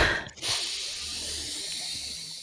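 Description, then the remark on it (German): A long, deep breath drawn in, a steady airy hiss lasting about two seconds after a brief pause, with no talking. “Und dann atmen wir nochmal zusammen tief ein”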